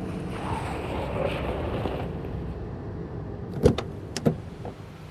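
A car's engine and road rumble fade as it pulls over and slows to a halt, leaving a quiet idle broken by two sharp mechanical clicks near the end.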